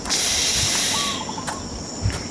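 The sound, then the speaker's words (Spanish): A dense nighttime jungle chorus of frogs, birds and crickets at Yaguarcaca: steady high-pitched insect trilling fills the air, with a brief call repeated a few times in the middle and scattered clicks, all continuous. “Cantos de ranas, aves, grillos y demás.”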